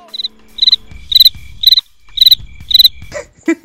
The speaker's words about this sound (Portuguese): É silêncio, silêncio. Coloca aí o grilo no final, depois desse comentário.